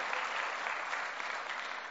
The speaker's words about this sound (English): If you clap, praise God. If you clap, praise God.